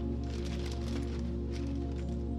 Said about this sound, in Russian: В его руках красочные пакеты с семенами. Профи открывает пакет